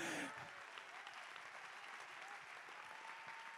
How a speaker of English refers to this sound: Come on, somebody. I want us to give the Lord a great hand clap of praise right now.